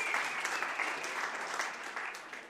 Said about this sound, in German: Applaus.